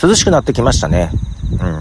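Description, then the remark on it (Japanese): Insects chirp steadily outdoors around 5:30 on a Sunday evening in fine, cooling weather during a walk, a thin high-pitched pulsing trill running in the background while two people talk briefly in the foreground. “涼しくなってきまして、まあカラスが鳴いてたり虫が鳴いてたりしますけども、蚊もいたんだよね、さっきね。”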